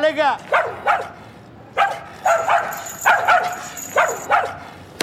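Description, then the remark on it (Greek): A dog gives a string of short, sharp barks and yips in uneven pairs, loud, opening with a brief high whimpering whine, over a faint noisy background. “Μπράβο αγόρι μου, μπράβο σκυλάκο μου, μπράβο πατριωτάκο μου εσύ.”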